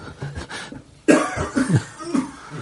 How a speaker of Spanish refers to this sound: ¿Qué te pasa con la tos? El tabaco. ¿El tabaco? Pues deja de fumar, hombre. No puedo. ¿No? Si fumo desde los cinco años.